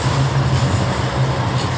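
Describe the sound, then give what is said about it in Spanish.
A tram rumbles past, a steady, loud low drone with a hiss of wheels on rails that holds evenly throughout, with no one speaking. “que el, tranvía está”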